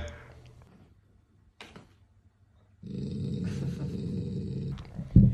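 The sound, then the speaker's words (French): A person imitates a man's angry growl with a low, rough, sustained snarl lasting about two seconds, fairly loud, followed by a brief gruff burst at the very end. “Mais genre, grogne fâché ou grogne, non, genre”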